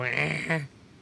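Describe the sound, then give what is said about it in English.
A mobile phone notification goes off: a brief, buzzy, honking two-part tone, almost like a quack, that cuts off abruptly into near silence with no one talking. “Ah, that was my phone.”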